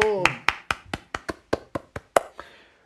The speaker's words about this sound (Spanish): Gracias. Gracias, gracias. Aplausos. ¡Bravo!